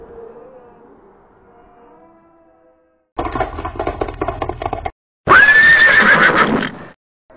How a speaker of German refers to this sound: Aus der Ferne kamen auch Pferde, auf denen weitere Zombies ritten.